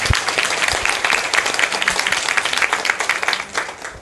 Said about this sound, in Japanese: はいじゃあ質問者の方に拍手お願いします